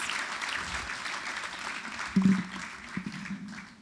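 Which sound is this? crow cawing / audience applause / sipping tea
audience applause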